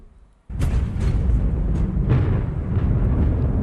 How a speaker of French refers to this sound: On entend des coups de canon.